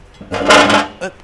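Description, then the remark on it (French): A metal chair just in front of a studio door in Boulogne scrapes and drags across the floor for about half a second, loud, then gives one short clank as it settles. No voices are heard. “c'est une chaise métallique euh, juste devant la porte.”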